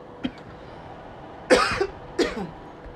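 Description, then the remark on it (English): A faint short throat sound followed by two loud, harsh coughs about half a second apart, caused by pepper in food just eaten, with no talking. “I feel like I'm gonna cough and sneeze at the same time.”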